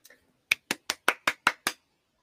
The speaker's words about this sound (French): Applaudir, applaudir, applaudir. C'est cette action. Par exemple, le public applaudit le chanteur.